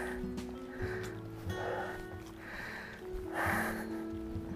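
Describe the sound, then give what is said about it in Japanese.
Heavy, out-of-breath panting: about five loud, breathy huffs in a steady rhythm, each a rough rush of air, over a constant low mechanical hum with no speech. “もうめっちゃ息切れしてますね。”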